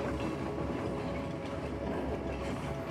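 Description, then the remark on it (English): A steady, continuous rumble of a train rolling along its rails, with a low droning hum and faint rhythmic clatter, heard from inside at an even, moderate level. “Now, hear yourself saying, as you drift and float on this dreamy train ride, sleep comes and it restores me and heals me.”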